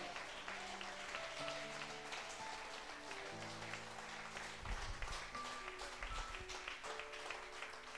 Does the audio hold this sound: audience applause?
yes